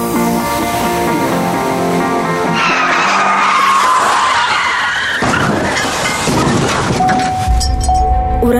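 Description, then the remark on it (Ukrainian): Car tires screech loudly in a long, skidding squeal lasting several seconds, with engine roar underneath and an abrupt shift in the noise partway through, as if the car loses control. “якщо ви постраждали в результаті автомобільної аварії, перебуваючи за кермом автомобіля або як пасажир, пішоход чи велосипедист”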